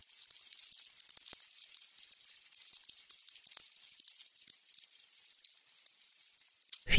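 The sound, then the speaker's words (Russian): A wooden candle wick burning, giving off a steady, fine crackle with irregular sharper pops throughout, heard alone with no talking. “Ну вот наши слушатели, к сожалению, аромат не смогут услышать, а вот как потрескивает фитиль вот этим волшебным образом смогут. Давайте прямо сейчас послушаем.”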